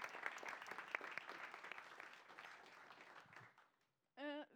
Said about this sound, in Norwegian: Eh, ta vel imot nyvalgt leder i AUF, Ina Libak, aller først. Stor applaus. Ja, der. Og stor applaus også til nestleder i Arbeiderpartiet, Hadia Tajik.